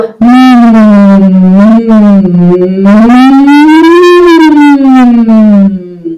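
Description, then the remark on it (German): A musical and operetta performer demonstrates a humming voice exercise for about six seconds, the pitch gliding slowly up and back down in a smooth, siren-like sweep, loud and steady with no words. “Das ist einfach nur Summen.”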